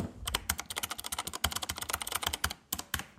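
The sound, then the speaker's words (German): Rapid, clacky typing on an ASIO Retro Compact Keyboard, a mechanical keyboard that looks like an old typewriter, with large key travel and a leather hand rest: a dense run of crisp keystrokes with brief pauses near the end, and no one talking. “Ähm, ich habe von ASIO, ASIO eine, eine Retro Compact Keyboard hier und Achtung”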